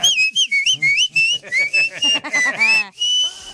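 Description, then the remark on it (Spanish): A person whistles a quick, warbling call: a string of short, sliding high notes in an uneven rhythm, ending on one longer held tone. Fairly loud, with faint voices murmuring underneath. “¿Pero a tus hijos les silbas tú?”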